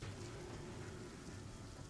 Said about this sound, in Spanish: No fueron los estruendos de la tormenta, ni la lluvia que azotaba como piedras el techo, lo que me despertó exaltado.